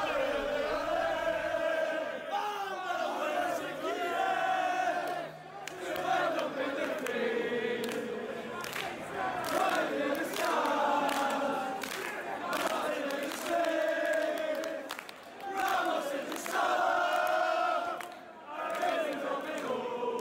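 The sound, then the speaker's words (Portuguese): A large crowd of Manchester City football fans sings the 'Allez, Allez, Allez' chant, their own lyrics set to the Liverpool song, in unison and loud. Its melodic phrases rise and fall in steady cycles for the full twenty seconds. “Vamos dar um sobe-som então aqui para o Ale, Ale, Ale, versão Manchester City.”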